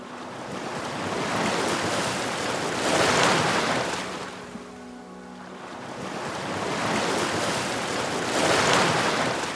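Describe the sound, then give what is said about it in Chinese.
Sea waves along a shoreline surge in a steady broad hiss, swelling twice and easing into a lull between them, where a faint low tonal hum shows through. No one speaks. “用手轻抚着海水，轻轻感受大海波涛的心跳。”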